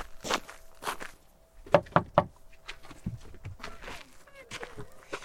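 Footsteps approach a door on a crunchy surface, a steady run of distinct treads with a few louder strikes in the middle, then quieter shuffling steps toward the end.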